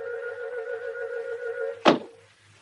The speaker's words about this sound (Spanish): Al ver que no reacciona, deja caer un libro al suelo.